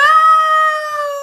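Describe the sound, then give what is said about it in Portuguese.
A voice imitates an ambulance siren with one loud, sustained wailing tone, steady and high, sagging slightly in pitch toward the end over about a second. “Foi uma boa imitação de uma ambulância ou não?”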